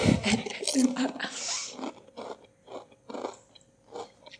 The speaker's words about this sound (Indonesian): Bagi kalian yang benci dengar orang makan, silakan klik off YouTube ini tapi jangan ya.